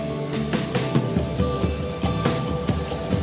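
Steady rain patters continuously with scattered louder droplet hits, over a soft sustained musical drone. No one speaks.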